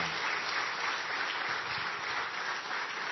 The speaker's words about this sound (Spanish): Y darle un fuerte aplauso y bienvenido al pastor.